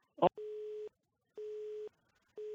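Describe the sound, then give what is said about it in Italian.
A telephone busy tone from a dropped call on a failing phone network in the morning: three steady, evenly spaced beeps of the same pitch, each about half a second long with equal gaps, heard clearly after a short click, with no talking. “E di nuovo la, la rete telefonica non ci aiuta stamattina, che dobbiamo fare?”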